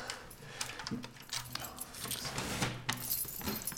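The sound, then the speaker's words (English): Keys jangle and clink continuously for several seconds, a bright metallic rattling with irregular bursts as a bunch is shuffled through while searching for the right key, with a few faint low bumps underneath. “Never get the right key.”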